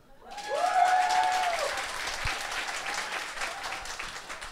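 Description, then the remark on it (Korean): An audience applauds to show agreement that a singer's musical quality has recently improved, many hands clapping in a dense, steady patter that swells quickly and then holds. A faint whistle-like tone rises briefly near the start. “최근에는 상당히 음악적 퀄리티가 올라갔다라고 생각하신 분은 박수.”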